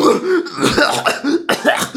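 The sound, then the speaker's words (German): A voice imitates a sick person's cough: a loud run of rough, throaty hacks over two seconds, with a sharp burst near the end. “Entschuldigung, dass ich ihm ins Gesicht gehustet habe.”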